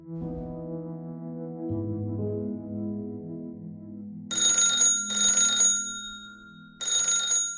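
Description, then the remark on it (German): A sustained, low tonal drone plays alone at first, then a bell-like telephone rings in three loud bursts, each under a second, with short pauses between them; the call is from Don Arden, former director and choreographer of the Stardust casino hotel in Las Vegas. “Noch während ihrer Zeit im Amerikaner klingelt das Telefon.”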